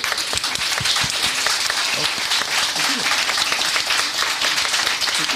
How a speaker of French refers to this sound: je vous applaudis. Bravo, bravo.